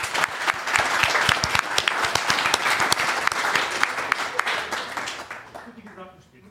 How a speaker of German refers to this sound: Und ich finde, da können wir alle mal einen Applaus einander sozusagen machen.